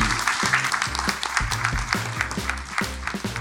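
An audience applauds steadily, a dense wash of many hands clapping that holds its level for the whole stretch, with a rhythmic, bass-heavy music track pulsing underneath.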